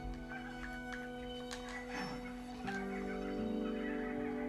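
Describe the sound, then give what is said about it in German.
Monkey calls from a video game, with no monkeys in sight: several short, shrill hoots and cries at irregular intervals over a steady droning hum, with no one speaking. “Warum gibt es hier immer das Geräusch von Affen?”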